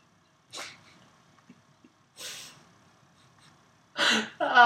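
Three sharp sneezes spaced a couple of seconds apart; the last one is the loudest and ends in a drawn-out voiced exhale.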